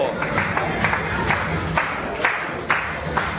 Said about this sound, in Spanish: Eso es, dale un fuerte aplauso